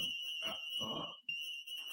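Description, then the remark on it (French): An alarm, left on because someone forgot to switch it off, keeps sounding: a steady, piercing high tone that runs unbroken throughout, with a few short, rough bursts of noise breaking in over it. “il a oublié, il a oublié de, d'enlever l'alarme.”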